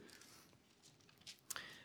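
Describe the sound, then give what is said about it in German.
Pages of a book being turned a few pages forward to Acts chapter 18: soft papery rustling with a couple of brief, crisp swishes near the end, quiet, with no talking. “Nun lass uns weitergehen, ein paar Blätter weiter blättern zu Apostelgeschichte Kapitel 18.”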